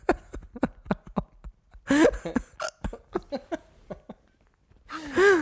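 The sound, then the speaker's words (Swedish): A person with hiccups: a string of short, sharp hiccup-like catches in the throat, repeating irregularly, mixed with breathy gasps and a couple of brief voiced, laugh-like bursts. “Nej, jag har fått hicka.”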